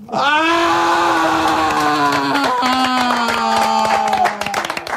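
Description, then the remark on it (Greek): A long, loud, dramatic scream holds one sustained pitch for about four seconds before breaking off, with a faint crowd-like clatter underneath. “Και αφού ακούσατε την κραυγή”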